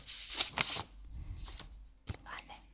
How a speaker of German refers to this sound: Das Jugendwort 2023 steht fest und es ist. Sie macht den Umschlag auf.